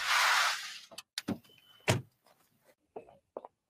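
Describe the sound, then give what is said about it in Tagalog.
A broad rushing noise fades out as a car pulls over, followed by a series of sharp mechanical clunks and clicks as the car door unlatches and swings open, with no voices. “Teka, ihinto mo yung sasakyan.”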